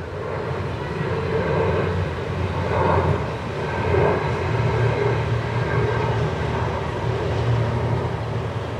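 A jet airplane on approach to land at Tegel passes low overhead, its broad engine roar steady and loud throughout with a rumbling low drone, sustained for the full duration without any voices.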